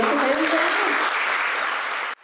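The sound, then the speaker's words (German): An audience applauds a professor steadily, a dense wash of many hands clapping at an even loudness, then it stops abruptly near the end. “Großen Applaus für Herrn Professor”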